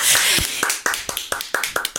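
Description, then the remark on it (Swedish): Brief applause: a short run of about eight crisp hand claps at a brisk, steady rhythm, preceded by a moment of breathy noise, with no talking. “Nu måste klappa in oss. en applåd.”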